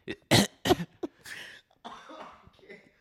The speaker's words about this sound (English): You're coughing now.